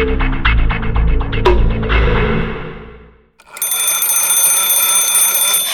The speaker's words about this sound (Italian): È il telefono il 18 aprile 1964.